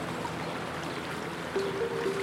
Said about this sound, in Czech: Slyší, jak jim nad hlavami lítají vrtulníky a taky neutichající hučení. Hučení vody.